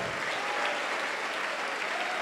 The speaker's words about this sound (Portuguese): E eu quero que você dê para esta palavra uma grande salva de palmas, porque a palavra de Deus não esconde as fraquezas dos grandes heróis da fé. Não tenha medo de ser fraco, fraca Aplauda o Senhor.